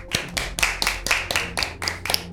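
A crowd applauding, a dense, steady patter of many hands clapping with a few sharper individual claps standing out rhythmically throughout, fairly loud and with no talking over it.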